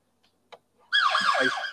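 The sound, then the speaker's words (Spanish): A loud emergency siren wails briefly, its pitch sweeping up and down for under a second, with no talking, preceded by a couple of faint clicks. “Por patrullas, por ambulancias aquí no.”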